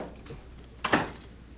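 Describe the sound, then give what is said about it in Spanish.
A door is shut once with a short thud and a brief rattle, heard alone against a quiet hum. “cierra bien esa puerta.”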